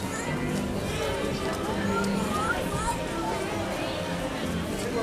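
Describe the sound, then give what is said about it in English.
A bustling theme park crowd on a freezing cold Tuesday: a steady, dense murmur of overlapping indistinct voices and shuffling footsteps, with occasional brief clops and clatters, holding at an even level throughout. “It's actually reasonably crowded for a Tuesday.”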